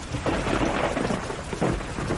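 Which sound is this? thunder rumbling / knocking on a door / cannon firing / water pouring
thunder rumbling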